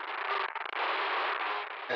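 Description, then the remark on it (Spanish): A long, loud, raspy creak of wooden wall paneling stretches for about two seconds, with a brief stutter early on, with no voices. “Qué crujido hace ese revestimiento de madera.”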